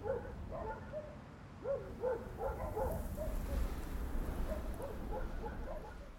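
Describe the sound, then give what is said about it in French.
A pack of sled dogs barks, yelps and whimpers excitedly, their overlapping calls running almost without pause over a low, steady rumble of background noise. “Quand on dit Canada, c'est la magie du Grand Nord, les chiens de traîneau.”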